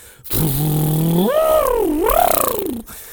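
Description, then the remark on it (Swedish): A voice imitates a didgeridoo, starting with a steady low buzzing drone, then bending into wavering, wah-like swoops in pitch for about two and a half seconds, loud and unbroken, with no words. “Alltså att när du är en didgeridoo så gör du ju...”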